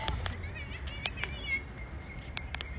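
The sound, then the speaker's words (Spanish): Small birds sing and chirp in a park, several thin, wavering calls overlapping, with occasional sharp short notes over a low rumble of background noise. “Oye, siento que necesito hacer este break para compartirte el sonido de estos pajaritos que están aquí en el parque.”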